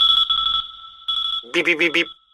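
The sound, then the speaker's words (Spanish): An alarm clock beeps in a steady, high-pitched electronic tone, sounding in two bursts with a brief pause. It is followed by four quick, rhythmic beeps that sound more like a voice imitating the alarm. “Si un bip bip bip bip consigues sacarte de tu cama una mañana de diciembre”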